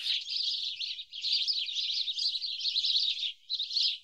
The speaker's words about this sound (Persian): آخی گنجیشکای مهربون گنجیشکای بامزه گنجیشکای زیبا گنجیشکای کوچولو موچولو گنجیشکای سهرخیز گنجیشکای جیک جیکو صوبتون بخیر